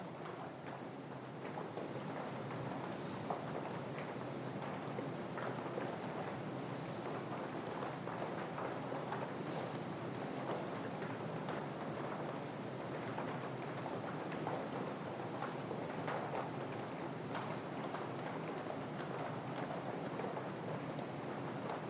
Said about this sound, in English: This immediacy, for example, the rain now, that's an immediate experience of impermanence, the sounds of the raindrops falling on the roof here.